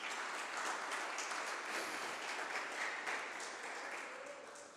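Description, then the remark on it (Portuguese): A crowd claps loudly and steadily, applauding Jesus, a dense wash of applause filling the space for several seconds before easing off slightly at the end. “Aplauda Jesus bem alto, gente!”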